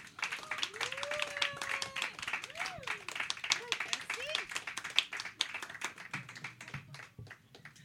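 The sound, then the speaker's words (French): A crowd at a comedy night applauds steadily for several seconds to welcome a performer on her first time there, dense overlapping claps at an even loudness, with whoops and rising whistled cheers mixed in. “S'il vous plaît, une main d'applaudissement pour.”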